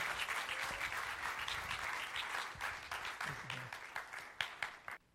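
An audience breaks into steady applause, many hands clapping in a dense, crackling wash that carries for several seconds before tapering off at the end.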